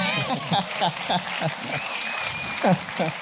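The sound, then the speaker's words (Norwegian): An audience claps steadily, a dense wash of many hands filling the space, with voices and bits of speech rising over the applause throughout. “Og det, Applaus!”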